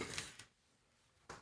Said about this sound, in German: Seppo hat immer diese komischen Gürtel mit diesen Metallschnallen, wo so ein Stift durch die Schnalle gezogen ist, mit so einem. So. Das war eben das typische Seppo-Gürtelgeräusch.